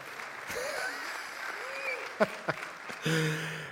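An audience applauds with a steady wash of clapping for several seconds, a few sharper claps standing out, voices calling over it, and the sound swelling a little toward the end.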